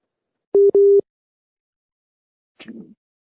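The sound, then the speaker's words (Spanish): Two short, steady telephone busy-tone beeps sound in quick succession after a dropped call, loud, followed by silence and a brief muffled rustle near the end. “de veras qué tormento es hablar por teléfono, día. En los tiempos estelares de la 4T no se puede sostener una llamada a teléfono”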